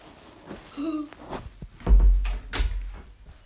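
A door is opened and shut nearby: a short squeaky creak, some clicks of the latch, then two heavy wooden thuds about half a second apart, with no talking.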